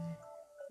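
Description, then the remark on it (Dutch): An alarm clock going off, faint and brief: a short low electronic tone gives way to a steady, higher beeping pitch that wavers slightly, with no voices. “Dat is mijn wekker.”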